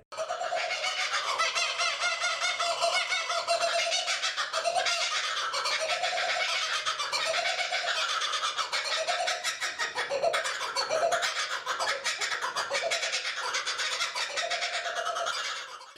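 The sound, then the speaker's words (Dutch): Loud, raucous kookaburra laughter fills the whole stretch, a dense chorus of cackling, rising and falling bird calls that keeps going without pause and with no one speaking. “Zei van, ah, die koekenbeurs, zijn je echt aan het uitlachen.”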